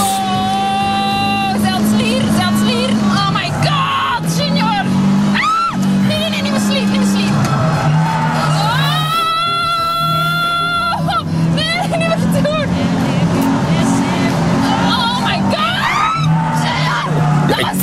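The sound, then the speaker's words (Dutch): A Lotus sports car engine roars and revs loudly around a racing circuit, its pitch rising and falling through gear changes, while excited voices shout and talk over the steady engine noise. “Even later scheurde hij over het nabijgelegen circuit in een Lotus.”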